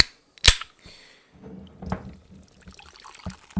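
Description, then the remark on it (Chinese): A sharp, loud pop as a can of Trader Joe's sparkling water is opened, followed by a soft hiss and fizzing liquid with a few faint clicks and crackles. “让我们一起听一听气泡水的声音”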